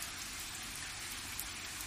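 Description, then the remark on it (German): Heavy summer downpour heard from a garden beside the wall of a house, a steady dense hiss of rain pattering continuously across surfaces, enveloping, with no voices. “Kannst du es hören, wie es regnet?”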